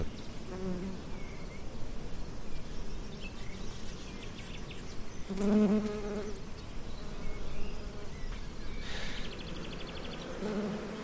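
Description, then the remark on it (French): Honeybees buzz steadily at an open beehive that is about to be closed, a dense, continuous hum with rising and falling tones as individual bees pass by, with no voices present. “Voilà, je vais la refermer cette ruche là.”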